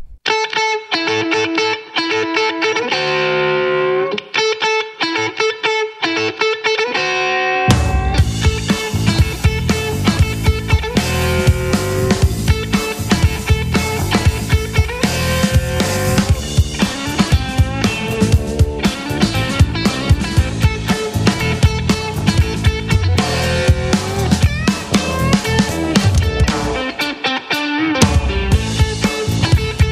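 An Andalusian Southern-style blues song led by distorted electric guitar. A thinner guitar intro gives way after several seconds to a loud, dense full band with bass and drums, briefly thinning out near the end.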